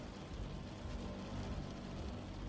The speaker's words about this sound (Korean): 또다시 정막이 흐른다. 차창에 부딪히는 빗소리만 아니면 어딘가 비현실적이다.